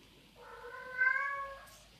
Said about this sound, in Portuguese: E, e a Pagu continua berrando, falando que quer sexo, eu não aguento mais. Alguém precisa dar sexo pra essa gata.